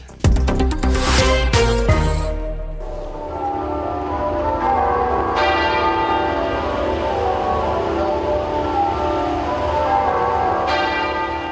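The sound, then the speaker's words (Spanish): Church bells of hundreds of churches, abbeys and cathedrals across the United Kingdom toll at midday with loud, ringing strikes that overlap into a continuous resonant peal, fresh strokes arriving every few seconds while the hum of earlier ones lingers underneath. “Así sonaron eh, al mediodía las campanas eh, de cientos de iglesias, abadías y catedrales en todo Reino Unido para rendir homenaje a la reina Isabel II”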